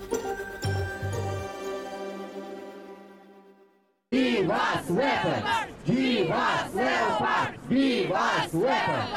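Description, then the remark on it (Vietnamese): A bright chiming jingle rings and fades away, then a large crowd of protesters outside the European Union building in Brussels, Belgium, bursts into loud, rhythmic chanting, shouting the same phrase in repeated, evenly spaced bursts. “Đó là tiếng hô của những người ở bên ngoài tòa nhà Liên minh châu Âu ở Brussels.”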